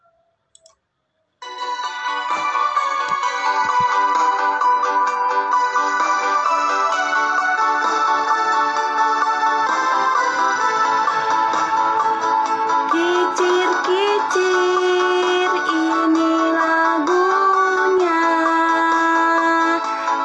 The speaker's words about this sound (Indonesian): Lagu kicir-kicir biasanya diiringi musik tradisional Betawi, seperti tanjidor maupun gambang kromong. Nah, mari kita sekarang akan menyanyikan lagu kicir-kicir bersama-sama ya menggunakan musik ya. Kita dengarkan ya.